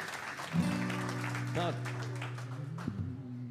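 Steady audience applause fills the whole stretch, a dense clatter of clapping, while sustained low instrument notes ring out over it and a brief rising tone slides in near the end.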